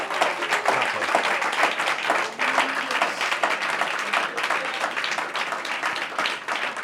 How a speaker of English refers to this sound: Now, clap for Jesus. Uh-huh.